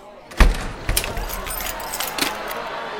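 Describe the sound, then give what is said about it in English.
Keys jangle and clatter in a few sharp bursts as doors are locked, with a metallic clunk near the start like a lock turning, then a softer ongoing rattle fading out. “Council, seal the doors!”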